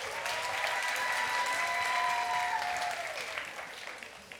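An audience bursts into a full round of applause, a dense, steady wash of clapping that holds for about three seconds and then gradually thins and fades toward the end.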